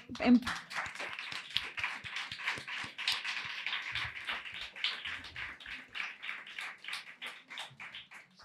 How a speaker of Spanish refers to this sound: Perfecto, micro preparado y un aplauso muy fuerte para las dos.